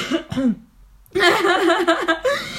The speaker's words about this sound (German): wenn ich huste, dass ich Raucher huste. Raucher husten? Ja, das ist voll gemein.